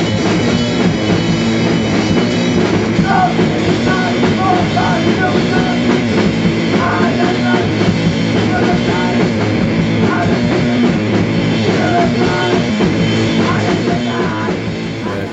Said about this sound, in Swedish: Stilen då? Hardcore Power Violence Beatdown. Snaskig blandning.